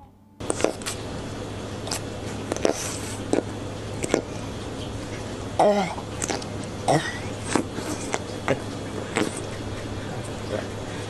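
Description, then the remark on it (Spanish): A pufferfish crunches on a carrot: sharp bites snap every second or so over a steady low hum, with a few squeaky, wet chewing sounds partway through. “Babies, esta es una voz en off diciéndoles a ustedes que en vez de dejarle a un chino comiendo cucarachas, les dejaremos a un pez globo comiendo zanahoria.”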